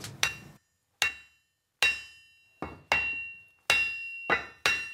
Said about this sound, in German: Mit kräftigen Hammerschlägen passt er das Holz in den Eisenring ein. Das Metall ist noch so heiß, dass das Holz augenblicklich zu qualmen beginnt.